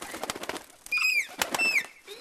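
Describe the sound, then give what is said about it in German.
A bird calls with a few loud, whistled notes that rise and fall, preceded by soft clicking and rustling sounds. “Bist ein schlauer Vogel.”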